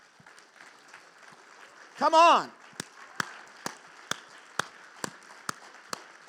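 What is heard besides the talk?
audience applause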